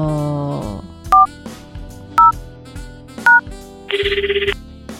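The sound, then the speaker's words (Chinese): Three separate telephone keypad tones beep at an even, unhurried pace over soft background music as a phone number is dialed, followed by a brief buzzing, rapidly pulsing ring. No one speaks. “我我现在立刻打，你赶快去帮我调酒。”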